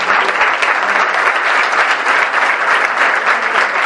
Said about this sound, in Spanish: Y quiero pedir un fuerte aplauso para los invitados en esta mesa.